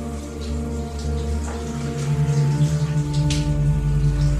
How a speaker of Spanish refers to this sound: Cuando está dentro de la ducha con esa gratificante agua que le cae por la espalda